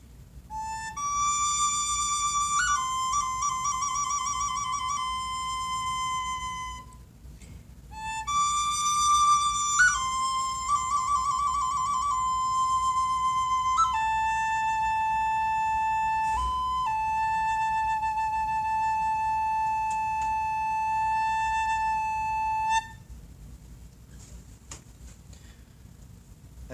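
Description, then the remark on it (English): A whistled imitation of birdsong: long, steady tones broken by quick warbling trills and sudden pitch steps, clear, running in two phrases with no talking before it stops abruptly. “And the birds sing this”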